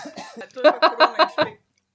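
A fairly loud fit of coughing: a throaty rasp followed by about five quick, evenly spaced coughs in a rapid burst, then silence.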